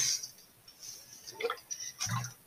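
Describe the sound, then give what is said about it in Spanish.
Water is poured into a glass to drink in a couple of short, splashy bursts, with quiet gurgling between them and no talking. “No lo quiero tomar ya. Voy a tomar agua.”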